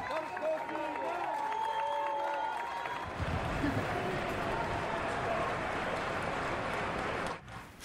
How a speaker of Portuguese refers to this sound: O juiz Rui Fonseca e Castro, que está suspenso e sob um processo disciplinar, aplaudido por uma centena de apoiantes, depois da atitude insólita que vimos, que teve com os agentes da PSP.